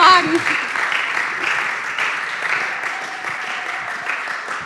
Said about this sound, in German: Thank you, Credo Church. Can we give Jesus a big hand clap this morning?